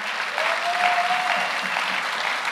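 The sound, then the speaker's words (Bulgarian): Steady applause from an audience, given as an offering of applause to God, a dense wash of clapping hands that holds evenly for a couple of seconds, with a faint sustained whistle-like tone briefly rising above it. “Има ли някой, който вярва в това и може да даде на Бог едно дарение на ръкопляскане?”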